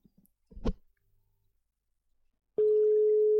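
A short knock or handling noise, then after a pause a loud, steady electronic phone tone starts and holds to the end: the ringing tone of an outgoing phone call placed on the show Nordsjælland Dreaming.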